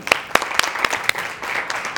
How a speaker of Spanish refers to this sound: Entonces muchísimas gracias. Te pido que des un fuerte aplauso.